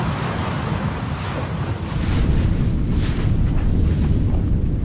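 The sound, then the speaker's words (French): Steady rushing wind buffets the microphone while waves wash and slap against the hull of a moving racing sailboat, a dense, continuous roar that swells louder halfway through, with no voices. “sans girouette, il fallait faire avancer le bateau à l'oreille, à l'écoute du vent.”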